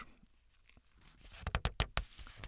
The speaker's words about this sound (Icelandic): fingurnar á blaðsíðum, árbókar ferðarfélags Íslands